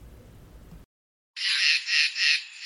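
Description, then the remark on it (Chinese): A brief low rumble gives way to a moment of silence, then a frog croaks loudly in three rhythmic, raspy pulses that run together without pause. “小青蛙肚子好饿呀！”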